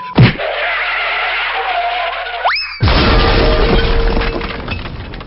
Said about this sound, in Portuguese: Mas antes de partirmos para o salseiro sem sequer olhar para trás, vamos primeiro com umas rápidas microfonias e daí partimos em diante. Só um pouquinho de lereado para arrumar o palco, ok? Vamos lá. Que barulho horrível!